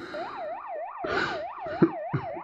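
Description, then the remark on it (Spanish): A police patrol car siren yelps in quick, steady rising-and-falling cycles, loud, with a brief rush of traffic noise and a couple of sharp knocks underneath. “Una sirena de patrullero sonó.”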